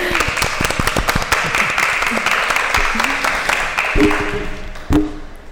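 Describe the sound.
An audience applauds steadily for several seconds after a speaker's presentation about her home village, a dense, even wash of many hands clapping at once, with a few brief voices rising over it toward the end.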